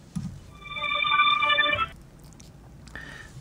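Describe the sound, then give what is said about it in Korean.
A phone ringing tone sounds once, a bright warbling burst lasting over a second, then cuts off, followed by quiet line noise and a brief faint tone as a caller's call connects to a live broadcast's phone-in consultation. “바로 또 다음 전화 연결해 보도록 하겠습니다.”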